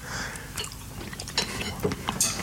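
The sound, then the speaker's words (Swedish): Chewing of a small piece of parmesan cheese, with irregular crunchy, moist bites and small clicks over a couple of seconds, no talking. “Nu kanske vi inte behöver tugga i oss hela den här biten, då kommer det ta en kvart innan vi har tuggat klart.”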